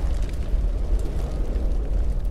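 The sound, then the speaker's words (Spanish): A loud, deep explosion roar, a sustained low rumble with crackling texture that fills the whole moment without fading. No one speaks. “Una explosión.”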